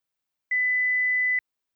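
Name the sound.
answering machine beep tone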